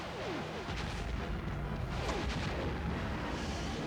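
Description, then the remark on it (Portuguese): Rockets fire from a battle vehicle set to minimal spread in a loud, continuous roaring barrage, with rapid booming bursts and rising whooshing streaks layered over a heavy low rumble. No one speaks. “Eu lamento, mas eu ainda tenho um duende pra pegar carro de batalha, os foguetes, difusão mínima.”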